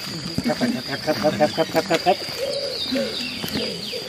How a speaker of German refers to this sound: Aber was wir jetzt hören, ist einerseits ein Laubfrosch.